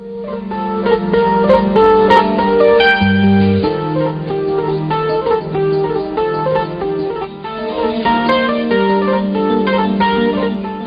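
A 1970s Italian progressive rock song plays loudly and continuously, with sustained melodic lines over a steady low bass; no voices are evident in this instrumental stretch.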